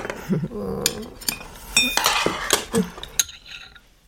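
Spoon and chopsticks clink repeatedly against a bowl as someone eats soy sauce egg rice, with irregular metallic taps and scrapes, some bright and sharp, over a soft background. No one speaks.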